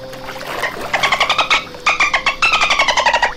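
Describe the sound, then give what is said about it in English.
A voice imitates a dolphin's chatter: a quick run of high, squeaky, rhythmic chirps, loud, pausing once before the rapid clicking squeals start up again. “Now here's a here's a dolphin.”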